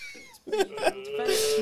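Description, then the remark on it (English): Heavy, strained wheezing breaths from a student doing a breathing exercise at a sport camp, each exhale carrying a voiced, groaning tone that ends in a long, loud, hissy rush of air. “This is a breathing quen where the student is using a special.”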